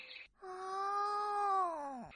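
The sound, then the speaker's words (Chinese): A lion cub gives one soft, drawn-out roar, more like a whining cry. It holds a steady, fairly high pitch, then slides downward at the end. It is heard alone, with no talking. “这只小狮子它好害羞呀，藏在草丛里，躲在妈妈身子底下，连吼起来的声音也是轻轻的、轻轻的。”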